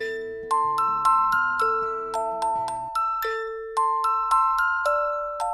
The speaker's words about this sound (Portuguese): Ambos os sons são de uma caixinha de música. O primeiro é uma canção de Ninar. Escute!